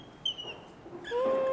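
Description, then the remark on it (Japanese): A hinoki wooden bird call, a block of Nishikawa timber with an eye bolt screwed into a drilled hole, squeaks as the bolt is twisted: a short, high chirp, then a longer, lower sustained squeal that grows louder, sounding much like a small bird or a whistle, with no talking. “今これ多分聞いてて笛でも吹いてるのかなっていう感じに聞こえると思うんですけど本当に木に刺さったボルトをキュッキュッとねじって。”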